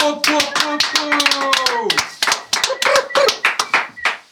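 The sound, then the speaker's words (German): Audience applause welcoming a rapper and a DJ on the show Corner Talk: a steady run of sharp, loud claps for about four seconds, with a drawn-out vocal cheer riding over the first half before the clapping carries on alone. “Machen wir einen fetten Applaus!”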